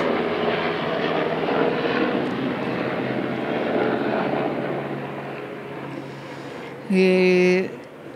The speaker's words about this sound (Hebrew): אה, כן, יש לנו איזו הפרעת אה, מסוק.